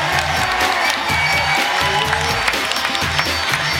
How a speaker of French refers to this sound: Il n'y a que des tonnerres d'applaudissements.